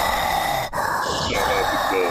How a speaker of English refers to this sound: You can hear me breathing. too close to the mic.